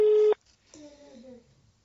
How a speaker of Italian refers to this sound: Per fortuna che ho fatto sentire gli squilli, che non è che siamo su Candy Camera.